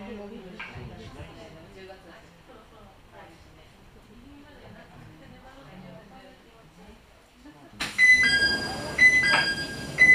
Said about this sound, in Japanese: このケーブルカーは山下りゴール行きでございますまもなくドアが閉まりますご注意ください